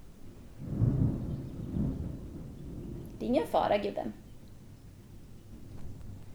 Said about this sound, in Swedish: Det börjar blixtra här utanför så kaninen blir lite rädd.